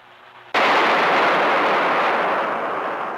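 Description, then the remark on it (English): A single sudden, deafening crack of an artificial lightning discharge from a high-voltage generator in a 1952 General Electric high-voltage lab, bursting out of near silence and ringing on as a loud, slowly fading roar. “The destructive current of this man-made stroke is greater than that occurring in 80% of nature's strokes.”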